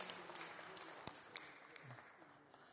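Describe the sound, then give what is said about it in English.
A small audience claps for a few seconds for a woman who has just read a line in Greek, a soft, steady patter of hands with a few sharper claps standing out, with faint voices underneath. “Uh, give her a clap.”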